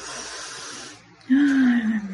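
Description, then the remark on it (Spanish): A long, airy deep breath drawn in through the nose, a short pause, then a louder, slightly voiced exhale with a low humming tone. “Así que ahora, en este preciso momento, les pido que tomen una profunda respiración. Mira, qué profunda”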